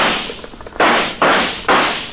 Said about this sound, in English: Start shooting, Jonah. Make them think there's a lot of us.